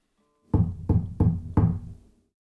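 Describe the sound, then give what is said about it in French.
Four firm knocks on the wooden door of a beautiful, luxurious house, evenly spaced, each a dull thud with a short hollow ring, with no voices. Zeus and Hermes, disguised as simple travelers, knock to ask for hospitality. “Ils frappent à la porte d'une belle maison luxueuse et riche pour demander l'hospitalité.”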